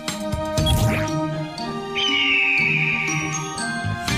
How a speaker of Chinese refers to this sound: 咕咕鸡是没事了，可是那只老鹰不太对劲，听起来很不高兴。